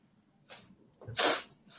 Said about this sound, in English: and my dog is freaking out.